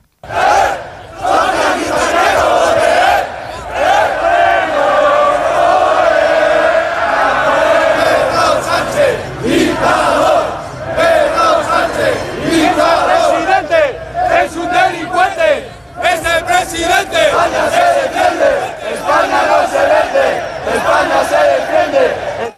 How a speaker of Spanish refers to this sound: La manifestación contra la amnistía ha comenzado de forma pacífica, bajo cánticos de todo tipo contra Pedro Sánchez y el Partido Socialista.